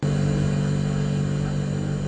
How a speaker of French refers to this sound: Le moteur repart, la lumière revient.